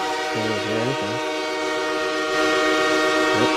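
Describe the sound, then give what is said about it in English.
A loud train horn blares steadily for the whole stretch, its chord held without a break over a low rumbling of the passing train, with brief wavering lower tones near the start and end. “The pain trains are coming.”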